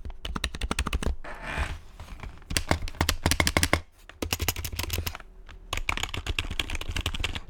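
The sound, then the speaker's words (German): Rapid typing on an old tactile, non-linear mechanical keyboard, with dense bursts of keystrokes broken by a few short pauses. No one speaks. “Ich habe jetzt hier noch meine andere, meine alte Tastatur.”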